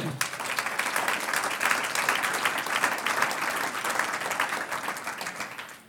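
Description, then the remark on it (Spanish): A church audience applauds together in praise to the Lord, a dense, sustained wash of many hands clapping that stays steady and fairly loud for several seconds before easing off at the end. “Un aplauso al Señor.”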